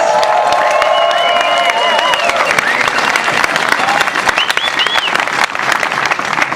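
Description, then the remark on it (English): A crowd breaks into loud, sustained applause for Ruth Croft, women's champion of the 2022 Western States 100 race, dense clapping filling the whole stretch, with scattered whoops and cheers and a few whistles rising above it. “Big round of applause.”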